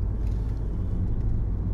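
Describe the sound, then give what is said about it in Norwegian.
Steady low rumble of a car driving toward Høllen, heard from inside the cabin, a constant engine and tyre drone with no voices, fairly loud and even throughout. “Nå så kjører jeg til eh, Høllen, tenker jeg, og så ser vi hvor veien tar meg.”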